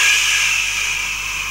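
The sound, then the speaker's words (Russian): A voice makes one steady, drawn-out hissing sound, imitating an old camera flash as actors in a stage production stand still for a photograph. The hiss is fairly loud, holds evenly for over a second, then fades slightly. Nothing else is heard. “И пока шипит вот этот вот аппарат, эта вспышка, мы слышим”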